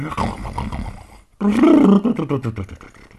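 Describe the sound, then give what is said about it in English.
Two long, deep rasping snores from an old hound dog sleeping in his dog bed next to the kitchen, the first steady and rumbling, the second louder and rougher with a throaty growl before trailing off. “And you know what good old hound dogs do when they sleep? What? They. They snore.”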